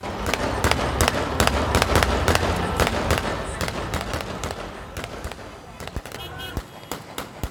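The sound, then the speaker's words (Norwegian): Celebratory gunfire fired into the air by soldiers and civilians celebrating in the town of Anadan in northern Syria, northwest of Aleppo: a rapid, irregular string of sharp, loud cracks, some in quick bursts, over a steady background of voices and crowd noise. “Dette her er altså lyden av soldater og sivile som feirer i byen Anadan i nord.”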